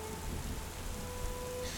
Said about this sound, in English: Eight hours into your journey, the rain has not let up the train does go through gaps of time when there isn't a storm, um, but they're very brief. They're no more than maybe five or 10 minutes.